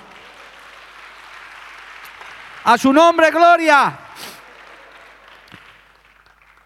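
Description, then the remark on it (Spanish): A church audience applauds for Christ steadily, a dense, even patter that fills the whole stretch. Partway through, a loud sung or shouted voice rises above the clapping for about a second before the applause fades out. “Si puedes, darle un gloria a Dios y darle un aplauso a Cristo, hermano.”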